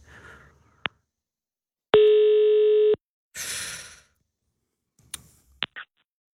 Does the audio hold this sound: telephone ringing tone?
yes